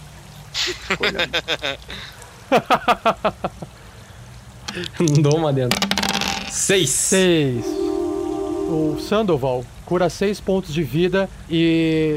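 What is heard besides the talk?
water dripping and flowing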